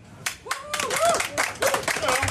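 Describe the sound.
Audience applause welcoming a guest onto a show breaks out in a steady patter of many clapping hands, with cheerful whoops and voices rising over it throughout the short burst.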